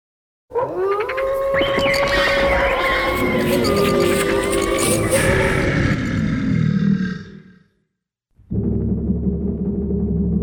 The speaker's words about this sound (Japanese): 獣たちの足音鳥やムササビの羽ばたき猿や羊牛の鳴き声何かが家の周りをムラムラと取り巻いた